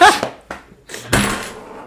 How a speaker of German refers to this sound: Ist halt kacke, wenn du dann so auf deinen Geldbeutel kommst, dass man schon, schon Münzen klirren hört